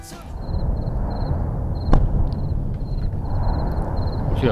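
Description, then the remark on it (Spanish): A deep, continuous roar of the Tajogaite volcano erupting on La Palma, with explosions and exhalations, one sharp explosive crack partway through and faint high chirping dashes above the rumble; no voices. “Es el rugido del volcán, las explosiones y las exhalaciones del volcán de La Palma, El del Tajogaite, como se, como se ha bautizado, según tengo entendido.”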